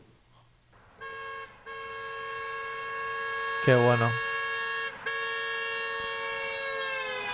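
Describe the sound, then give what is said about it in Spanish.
A car horn blares continuously as the vehicle passes, its pitch sliding noticeably lower midway through in a clear Doppler shift; the steady, loud tone then holds while a person briefly speaks. “Te he dejado aquí un vídeo eh, que es el efecto Doppler con una bocina de un coche.”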